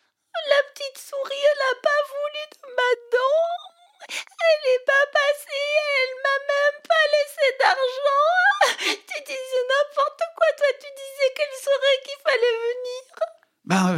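A girl cries loudly, with high, wavering wails broken by short sobbing gasps, continuing in repeated bursts from start to finish with no other sounds.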